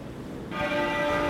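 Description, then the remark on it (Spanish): Church bells ring out over a quiet outdoor hush during a funeral procession to Westminster Abbey in London, a single resonant strike blooming midway and sustaining with steady, shimmering overtones at moderate volume, no voices present. “Las campanas. Las campanas sonando.”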